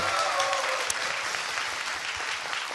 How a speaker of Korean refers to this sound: 박수 한 번 좀 부탁드리겠습니다.